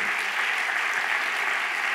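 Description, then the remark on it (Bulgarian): An audience applauds together, a dense and steady wash of many hands clapping at an even loudness throughout, with no distinct voices above it. “Имам ли хора, които имат опит в живота и могат да кажат тая проповед е абсолютната истина, която той човек ми проповядва, ако ръкопляскаш, ръкопляскаш, като че ти си един от тях.”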